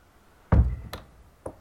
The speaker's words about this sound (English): Why won't this door open?